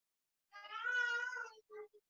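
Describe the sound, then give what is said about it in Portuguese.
A baby girl who is getting sleepy cries out in one drawn-out, high wail, followed by two quick shorter sobs, with no other sounds around it. “É, a, a, a minha filha chorando está atrapalhando muito no áudio aí, Stefano.”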